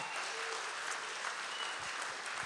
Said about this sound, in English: Give the Lord a good clap offering one more time. Amen.